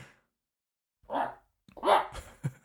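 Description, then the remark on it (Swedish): A person's voice imitates a duck in rut: a short nasal squawk, then a longer, louder honking call ending in a brief grunt, with silence before. “hur låter den brunstig anka?”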